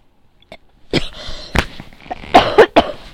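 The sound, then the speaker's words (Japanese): Several sharp coughs, coming in an uneven burst of short explosive hacks with small gaps between them, with no talking. “ごめんなさい。今日は咳とうん、敵と戦いながらお話しする感じですね。”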